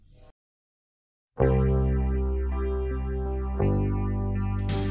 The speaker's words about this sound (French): Alors écoutez, ça tombe bien puisqu'on va écouter une très belle chanson qui, qui rappelle un petit peu la Bible, donc même beaucoup.